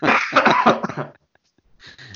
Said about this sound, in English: Uh, pardon the coughing.